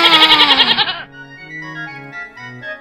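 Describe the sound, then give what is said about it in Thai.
A goat lets out one loud, quavering bleat lasting about a second, then it breaks off and soft, sustained musical tones carry on quietly. “แต่เจ้าแพ้กลับบอกว่า ข้าจะอิ่มได้อย่างไร ไม่มีหญ้าให้ดึงสักใบ ข้าต้องหากินเองเรื่อยไป บ้าบ้า”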